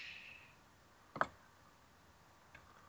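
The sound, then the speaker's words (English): A single crisp tap on a phone screen while typing and sending a tweet asking whether a hot dog is a sandwich, followed about a second later by a much fainter tap, against a quiet, hissy background with no talking. “This is me sending a question to WordFunk at Austin Yorski at Renegade Cut.”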